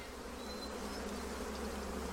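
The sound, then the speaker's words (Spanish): A dense, steady drone of many honeybees buzzing together around a colony, a continuous low hum that holds at an even, moderate level throughout with no voices. “En el norte de Grecia, como en la mayoría de los países desarrollados, una hecatombe está afectando a las colonias de abejas.”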